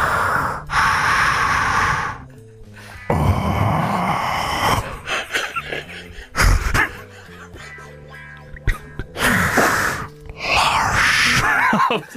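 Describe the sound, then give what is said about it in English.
A voice imitates slow, heavy masked breathing, with loud rasping inhales and exhales alternating in a steady rhythm, with brief breathy pauses between. “Darth Vader having a relaxing bath.”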